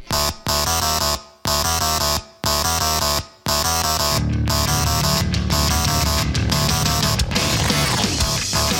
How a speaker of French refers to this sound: ça c'est un vieux stylophone des familles, hein, ce tout petit clavier métallique qu'on touche avec un stylo pour faire un son zarbi. Et lui avec, il a reconstitué 15 riffs de guitare électrique bien lourds.